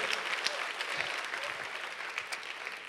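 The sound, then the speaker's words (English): A crowd applauds with steady, dense clapping that fills the whole stretch at an even level, the many overlapping claps blending into a continuous crackling wash. “Clap your hands if you know something.”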